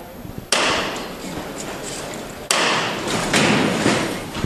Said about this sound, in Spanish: Suena el martillo ahora en el interior de la capilla de este convento de Santa Isabel.